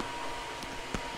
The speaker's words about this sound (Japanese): 超うるせえなこれ 換気扇つけたら超うるさいね大丈夫これはもしかしたらあれじゃない配信できない 配信できないやつじゃないあまりにも騒音がすごいなさすがにちょっとこの騒音はやばいかなこれ